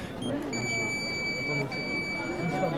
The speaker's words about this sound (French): Et ça bip. Euh, ça a bipé combien de fois mille fois, je pense. il paraît qu'en trois jours, ça va biper 165 000 fois.